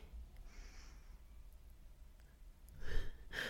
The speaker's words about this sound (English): but he's snoring. and he's doing that thing, like he must be breathing deeply and his little lips moving.